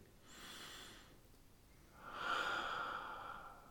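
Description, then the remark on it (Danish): Slow, calm breathing: a soft airy inhale, a brief pause, then a longer, fuller exhale with no talking. “Og så brug vejrtrækningen stille og roligt”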